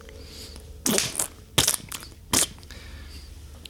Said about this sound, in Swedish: Du stapplar ut och du hör mm. bakom dig hur någon stampar ljudligt i golvet. Det låter som någon som rör om i en gryta smöriga makaroner.